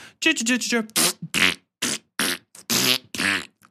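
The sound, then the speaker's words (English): A voice blows a rapid series of loud, wet, sputtering fart noises, about seven bursts in a row with brief gaps, some buzzy and drawn out, some short and hissy. “And for no reason, while he's doing this, there are fart machine noises constantly.”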